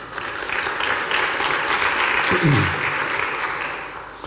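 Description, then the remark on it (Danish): Steady applause from a crowd for the worship singers fills the whole stretch, a dense wash of clapping at moderate volume, with a brief low voice or murmur rising through it midway. “Giv dem din hånd, det er så godt.”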